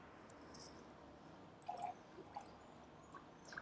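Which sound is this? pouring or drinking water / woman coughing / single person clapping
pouring or drinking water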